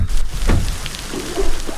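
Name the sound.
rain falling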